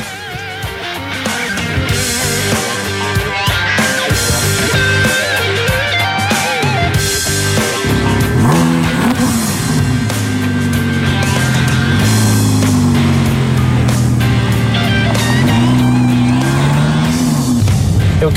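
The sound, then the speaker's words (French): A high-revving mid-engine 5.2-litre naturally aspirated V10 sports car, with no turbo and no electric or hybrid assistance, roars loudly and continuously on a test drive, its pitch climbing and dropping through several hard accelerations and gear changes, with faint tire squeal and no talking. “10 cylindres, V10. 5 litres 2, il est entièrement atmosphérique, il n'y a pas de turbo, il n'y a pas d'assistance électrique ni d'hybridation,”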